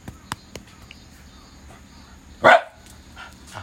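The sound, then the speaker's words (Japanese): A single sharp dog bark rings out, loud and sudden against a quiet background, with a few faint clicks before it and softer noises trailing after; the dog is barking to warn off a passerby. “あ通行人の人ね別に何もくれへんよ威嚇してますね”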